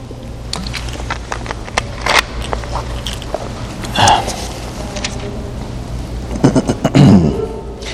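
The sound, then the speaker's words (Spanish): Someone takes sips of water, with soft mouth clicks, swallowing and a few brief gulps spread over several seconds against a low, steady background hum. No one speaks. “Déjeme tomar un poco de agua.”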